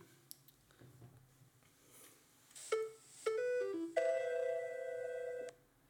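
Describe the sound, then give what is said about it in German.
A few faint taps and clicks, then the Cologne Bonn Airport announcement chime played from a phone app: several quick bright tones stepping between pitches, the last one held for over a second, played through a small speaker with no talking. “der schon mal am Köln-Bonner Flughafen war, ähm, hat das Geräusch schon mal.”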